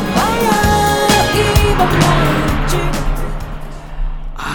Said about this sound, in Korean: 자, 옆에 차 지나갑니다. 음악 소리 들려요? 옆차에서 어떤 노래 듣고 있을까요? 들어보세요.